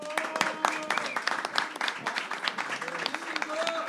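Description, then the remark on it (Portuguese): At Happy Burger at night, a crowd claps and cheers steadily for DJ Beans for a few seconds, dense hand claps mixed with whoops and overlapping shouted voices, loud and continuous without a pause. “Antes da gente dar início aí, barulho pro DJ Beans.”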